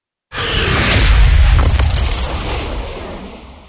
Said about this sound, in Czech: Ohlušující výbuch doprovázený ohňostrojem ho rozmetal na kusy.